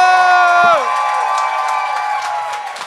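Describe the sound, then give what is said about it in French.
A loud audience cheers and claps steadily for the show's hosts, with a long whooping tone at the start that slides downward before the noisy applause carries on. “et finalement donnez tout ce qui vous reste comme énergie pour vos animateurs”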